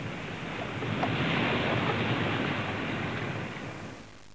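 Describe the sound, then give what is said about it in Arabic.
Broad, steady rush of sea waves and surf, fairly loud, with a gusty wind-like hiss throughout, easing off slightly toward the end. No voices. “ومن بعد خداو يونس ورموه في البحر وتهدن عليهم”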